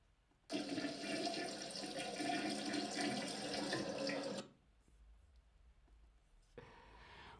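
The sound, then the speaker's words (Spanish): A toilet flushes loudly, a broad rushing roar lasting about four seconds before cutting off, followed by quieter gurgling as the tank refills. “El váter. El váter o el retrete.”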